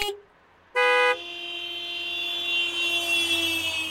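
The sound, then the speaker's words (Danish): A single short, loud car horn blast rings out after a brief silence, followed by a steady humming tone that lingers and slowly swells beneath it. “GF Forsikring præsenterer Pyt i stedet for dyt.”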